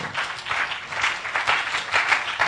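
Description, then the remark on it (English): An audience claps their hands unto the Lord in a steady, dense wash of applause that holds at a fairly even loudness throughout, with no voices standing out above it. “Won't you clap your hand one more time unto the Lord?”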